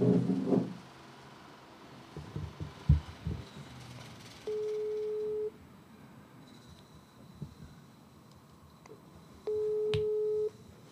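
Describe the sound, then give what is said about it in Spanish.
A phone ringback tone plays over speakerphone on a second call attempt, two steady one-second beeps about five seconds apart, with nobody picking up, after some brief rustling and knocks at the start. “segundo intento. Bueno, se ha intentado.”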